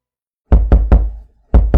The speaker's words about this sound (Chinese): 睡梦中的迪迦耳边传来一阵嘈杂的敲击声，像极了妈妈敲门的声音。